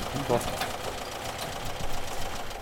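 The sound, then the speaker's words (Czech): A car's boxer engine, with two pairs of opposed cylinders, idles with a steady, throbbing rumble and a faint rhythmic knocking beneath it, with a brief voice-like sound near the start. “kde to je stejná koncepce, to znamená boxer motor, dva válce, dva a dva válce proti sobě, tak je to takové to typické, slyšíte to žduchání.”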